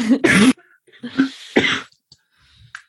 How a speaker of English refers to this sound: Sorry, I have to have a bit of a cough.